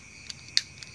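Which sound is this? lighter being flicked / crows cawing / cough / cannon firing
lighter being flicked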